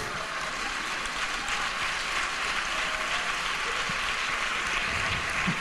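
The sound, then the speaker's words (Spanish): A crowd claps steadily for several seconds, a dense, even patter of many hands at a constant, fairly loud level with no voices standing out. “No le aplaudáis estas cosas, por favor.”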